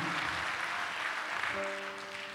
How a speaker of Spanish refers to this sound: ¿Cuántos dan un fuerte aplauso a Dios por eso, amado hermano?